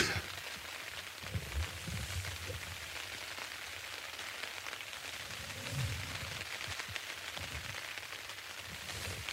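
Steady rain patters on a tent, a dense, even hiss of countless drops on the taut fabric, continuing without pause and with no voices.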